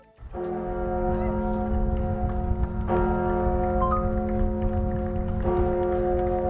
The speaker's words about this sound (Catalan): Sonen campanes, són les campanes de Notre Dame de París, i és que aquesta aquests dies eh, han tornat a sonar precisament per commemorar el primer aniversari un any d'aquell incendi